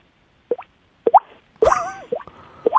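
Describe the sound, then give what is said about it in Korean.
A person imitates water droplets with their mouth, producing a series of hollow, rising plops in an irregular rhythm, fairly loud, with one brief louder burst in the middle. “그거 한번 들어보자 우리 물방울 소리.”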